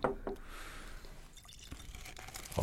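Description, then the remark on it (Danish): A short, small splash of whisky is poured into a glass, the gurgle rising in pitch as it fills, followed by a few faint drips and light glassy knocks. “Og det skal måske bare være en lille en.”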